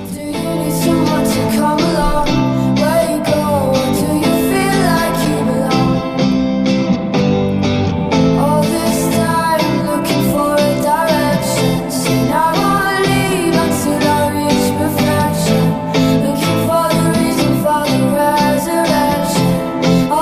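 A full-band alternative rock song plays at steady, high loudness, with driving drums, layered guitars and sustained chords throughout. No one speaks over it.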